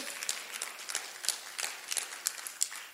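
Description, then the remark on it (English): A crowd gives a clap offering, many hands clapping in a dense, steady patter with sharp individual claps standing out, moderately quiet, with no voices. “come on, give them some, give them a good clap offering.”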